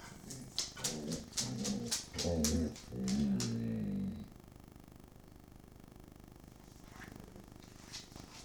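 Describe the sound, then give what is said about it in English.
Dogs bark at a cat outside in a quick, overlapping flurry of loud yaps for about four seconds, then fall silent apart from a faint low hum and a couple of soft sounds. “You're about to hear some dogs barking.”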